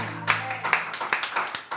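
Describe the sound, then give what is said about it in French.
A group claps together in a steady rhythm, about one sharp clap every half second, over a low sustained hum and faint voices, at a Christian worship service. “Dieu ne mérite pas nos applaudissements.”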